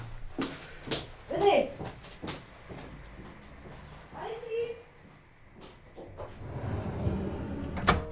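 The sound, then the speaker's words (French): Kitchen cupboard doors open and shut with a few irregular wooden clunks and thuds, over a murmur of background noise and faint voices. “Il y a peut-être une centaine de portes et de placards tout autour de nous. Mais elle ne se trompe pas.”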